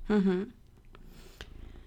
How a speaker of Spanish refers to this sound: siento mucho los ruidos, pero es que está aquí justo uno de los gatitos que ya os avisamos en la primera introducción nuestra que estarían por ahí.